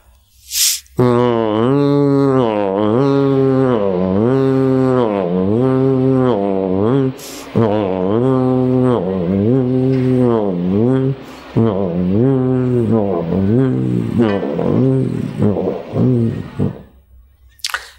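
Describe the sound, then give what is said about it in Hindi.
A long, sustained throat-hummed Om (Omkar) chant while moving the neck, one steady low-pitched voiced tone held for many seconds with a wavering, pulsing quality, rising and falling slightly, with no words spoken. “मैं करता हूं कंठ से ओमकार का गुंजन गर्दन को हिलाऊंगा आप भी हिलाओ”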